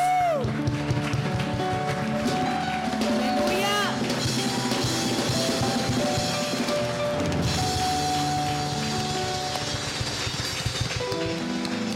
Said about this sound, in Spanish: Yo, vamos a empezar con un aplauso a Dios.